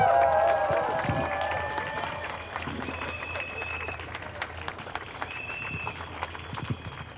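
Crowd applause and cheering after a speech at a rally against right-wing extremism and for democracy, in front of the Parliament in Vienna, with dense clapping and whistle-like tones, loud at first and gradually thinning into scattered claps.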